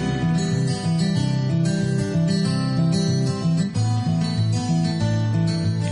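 A song plays on the radio in the Canary Islands in the morning, continuously at steady, full volume, with sustained tonal instruments, a rich layered melody and harmonic accompaniment, and no voices talking over it.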